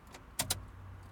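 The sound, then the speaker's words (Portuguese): A car key clicks twice in the ignition as a car that was left on is switched off: two quick, sharp metallic snaps over a steady low hum, with no talking. “E tive que dar aqui chave no carro porque percebi que estava ligado.”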